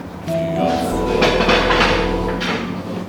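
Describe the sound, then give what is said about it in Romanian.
A short, loud jingle plays on its own: sustained tones over a rumbling, clattering texture that resembles a passing train, lasting about three seconds with no talking. “Asta e jingle. Așa. Tocmai a fost.”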